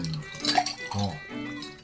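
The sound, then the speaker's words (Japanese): Ice cubes clink lightly in a glass, a couple of bright, quick chimes near the start, with soft voices murmuring underneath throughout. “もうなんかこのさなんだろうこのヘッドホン越しに聞こえてくるこの氷の音がいいねうんそうそうこれねカランカランカランカラン”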